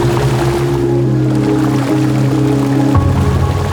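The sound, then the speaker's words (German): A fishing boat's motor starts and drones steadily and loudly, a deep humming rumble that shifts to a lower pitch near the end as the boat leaves the harbor of Seabay. “startet der Motor. Wir sind bereit! Sieben Bandit! los geht's! Und das schöne Fischerboot Marina verlässt den Hafen von Seabay.”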